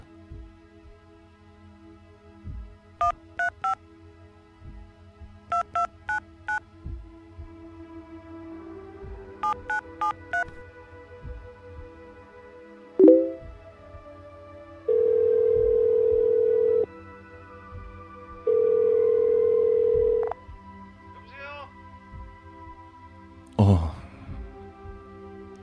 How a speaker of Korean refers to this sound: 난 무섭고 두려웠지만 휴대폰을 꺼내들고 동료 대리기사의 번호를 찾아 전화를 걸었다.